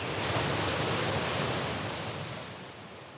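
Ocean waves rush in a continuous, steady wash of surf, fairly loud, easing off slightly toward the end with no voices.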